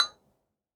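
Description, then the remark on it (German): A single bright clink of glasses touching in a toast, sharp at the start and ringing out briefly before fading to silence within a fraction of a second. “Und da ist natürlich Anprosten auch perfekt.”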